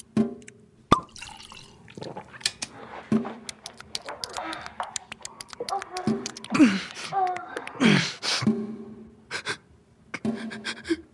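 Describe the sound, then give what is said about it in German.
A tap drips steadily, each drop landing with a sharp, hollow plink in an irregular rhythm, with faint rustling and breathy background sounds between drops. “Dieser scheiß Wasserhahn.”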